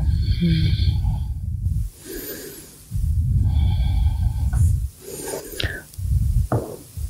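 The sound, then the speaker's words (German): Three long, deep breaths taken while holding the camel pose, a yoga back bend, each a loud, airy rush separated by short quiet pauses, with no talking. “eine Rückbeuge hier, nochmal tief in den Herzraum atmen, Weite in der Körpervorderseite erfahren, atmen, Herzöffnung, noch drei tiefe Atemzüge.”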